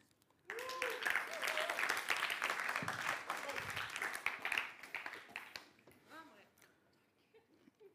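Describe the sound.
A room full of people bursts into applause that holds steady for several seconds, with a few voices calling out over it, before the clapping tapers off and fades away.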